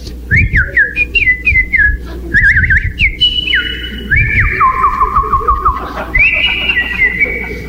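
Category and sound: vocal imitation, whistled imitation of birdsong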